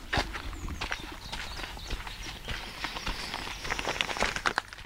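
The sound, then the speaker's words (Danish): Steady footsteps crunch along a gravel garden path, with a continuous rustling texture and faint outdoor ambience throughout. “Skal vi prøve at gå derover?”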